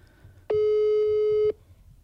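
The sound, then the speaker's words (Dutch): A single steady electronic ringback tone of an unanswered WhatsApp call that keeps ringing, lasting about a second, starting and stopping abruptly, loud over a quiet background. “Gaat WhatsApp naar voicemail? Nee, dat, gaat, dat oh, blijft, dat blijft overgaan.”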